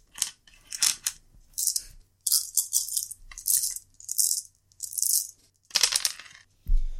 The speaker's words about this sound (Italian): Riprendo i dadi. Ok.